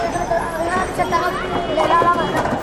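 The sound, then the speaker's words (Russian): A steady hubbub of many children's voices from a school, a continuous babble of chatter and shouts with no single voice standing out. “Тут у нас школа, вы слышите, с другой стороны дома строятся.”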